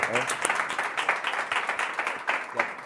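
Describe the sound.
A crowd applauds steadily, a dense crackle of many hands clapping at once, with a few voices mixed faintly into the noise, applauding a performer's former police colleague who came to watch him.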